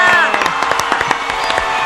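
A crowd claps and cheers loudly and continuously, dense rapid clapping over excited shouting voices, with a brief high whistle at the start.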